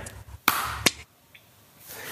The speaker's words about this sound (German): Also das beim ersten war es bei mir perfekt. Ich habe genau dann geklatscht, als ich deins gehört habe.